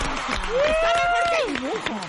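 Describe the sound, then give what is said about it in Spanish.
Scattered clapping, like a short round of applause, runs steadily underneath a loud, sustained voice that holds a wavering note before sliding downward. “Un aplauso Muy bien.”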